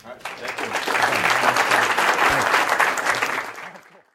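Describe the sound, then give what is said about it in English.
An audience at the end of a Stanford Entrepreneurial Thought Leader Series lecture breaks into sustained, dense applause, many hands clapping at once for about four seconds, staying loud and steady before tapering off at the end. “we have way more great content than we have time, so let's uh, end the session now with a big thank you”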